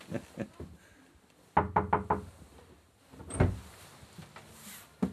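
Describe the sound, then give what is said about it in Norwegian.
Four quick, sharp knocks rap on a door under a staircase, followed a moment later by a heavier single thud, with quiet background noise around them and no talking. “Du får banke på døra her, da.”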